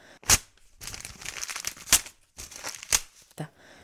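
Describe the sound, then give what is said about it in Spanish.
A paper letter being ripped apart, a few sharp tearing bursts with rustling crinkles between them, over about four seconds with no talking. “Y el león rompió la carta”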